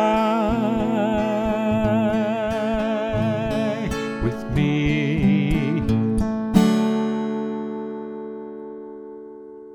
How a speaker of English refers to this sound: A soaring and bouncy tune